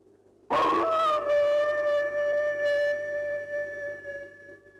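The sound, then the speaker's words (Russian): A person, with hands cupped into a tube, imitates an eerie dog howl: one loud, sustained wail that starts abruptly and holds a steady, slightly falling pitch for several seconds, alone. “Завхоз подкрался к приоткрытой двери с надписью «Дежурный преподаватель» и, сложив руки трубочкой, издал жуткий протяжный вой.”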